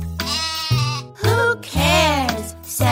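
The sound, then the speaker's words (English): A sheep bleats loudly, three or four wavering, nasal calls in quick succession with only brief pauses between them. “Who cares, said the sheep”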